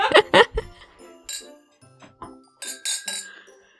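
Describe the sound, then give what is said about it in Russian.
Glasses clink together in a toast before drinking, several bright ringing taps spread over a few seconds, fairly loud, with soft laughter and murmuring voices in between. “Давайте замедлимся и выпьем.”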